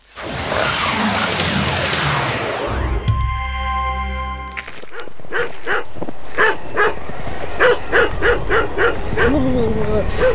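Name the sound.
dog barking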